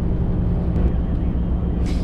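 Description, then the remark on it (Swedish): A truck pulling a trailer of burnable waste drives steadily at 70 between Mariehamn and Uppsala, its loud engine droning in a constant low rumble, with a brief airy hiss near the end. “Jag får köra 70 med den här, med bil och släp.”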